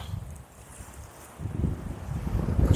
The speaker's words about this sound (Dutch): Misschien hoor je het geluid van de zee op de achtergrond waar ik nu op dit moment loop.